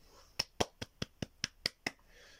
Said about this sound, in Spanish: Hoy no hay aplausos de máquina. Hoy no hay aplausos de máquina. Hoy hay, hoy hay aplausos creados por el hombre. O sea, por el hombre negro que tengo atrás.